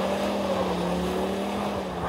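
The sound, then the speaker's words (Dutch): A five-cylinder car engine revs at a steady, fairly loud pitch, holding a low throaty drone with only slight rises and dips, running continuously with no one speaking. “Je bent sowieso enorme fan van dat motorblok, hè? Die, die vijfcilinder, dat is gewoon...”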